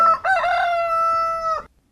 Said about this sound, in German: Darum geht es nämlich. Es geht um Hähne.